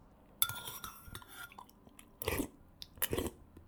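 Slurping of soup, with three or four short, wet, airy bursts separated by quiet pauses, plus faint mouth and utensil noises in between. No one speaks.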